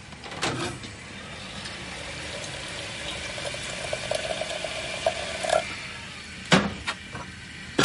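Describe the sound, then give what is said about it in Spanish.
In a kitchen, boiling water from a kettle is poured steadily into a teapot over tea leaves, a gurgling stream whose pitch slowly rises as it fills, with soft clinks of ceramic at the start and end. No one speaks. “Echa unas hojas de té en la tetera y la llena con el agua hirviendo.”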